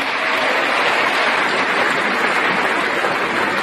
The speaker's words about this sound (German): Ja, sehr, sehr großer Applaus und zwar zu Recht.